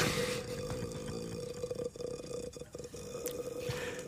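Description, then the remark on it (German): A voice imitates the ghost's croak from the horror film The Grudge: a continuous, raspy, rattling throat sound held steadily for about four seconds, with a strong low drone and grainy crackle throughout. “Jetzt sind wir beim Grudge-Geräusch wieder.”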